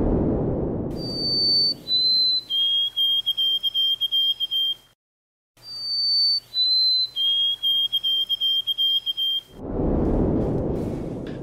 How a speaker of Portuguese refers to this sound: O segundo sonzinho dos pardais, né, do, da mesma espécie, é o mesmo passarinho, foi registrado nos anos 2000.